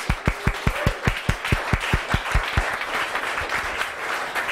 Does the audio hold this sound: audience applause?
yes